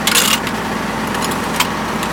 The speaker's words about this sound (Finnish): Kuinka paljon tuo auto häiritsee podcastia?